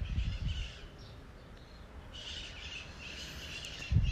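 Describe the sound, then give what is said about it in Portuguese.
A flock of maritaca parakeets calls in harsh, overlapping screeches, fading briefly then swelling back into steady chatter over a low rumbling background. No one speaks. “E quanto maior o barulho de fora, as maritacas maritando.”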